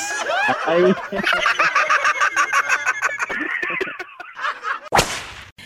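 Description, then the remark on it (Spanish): A rooster crows loudly while chickens cluck busily around it, the calls overlapping for several seconds before a sharp, abrupt burst near the end. “Porque se despierta con el canto del gallo.”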